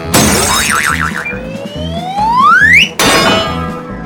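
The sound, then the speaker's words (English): A carnival strength tester: a sharp hammer thud, a warbling tone turning into a long rising whistle as the puck climbs, then a loud bell clang that rings out to the end. “Hit the target as hard as you can with this hammer. If you ring the bell, you win.”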